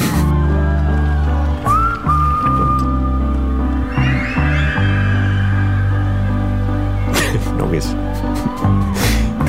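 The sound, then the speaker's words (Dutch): A large festival crowd at Werchter in 2011 whistles along to a live song, many whistles blending into a sustained melodic line over steady music, with scattered bursts of noise and cheering rising near the end. “Allemaal dankzij de meefluitende BO Festival Weide.”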